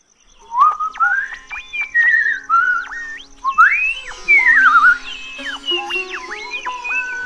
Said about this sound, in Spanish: ¡Qué alegre silbas, vos!